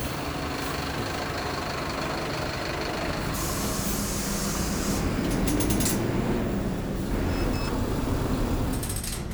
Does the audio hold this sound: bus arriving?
yes